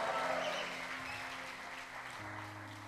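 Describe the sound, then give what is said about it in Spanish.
A church audience claps and cheers together in praise of the Holy Spirit, a steady, dense wash of applause with shouts of joy mixed in, fairly loud and sustained throughout, with a low hum or organ tone beneath. “Vamos a darle palmas de alabanza y un grito de júbilo al Espíritu Santo de Dios ahora.”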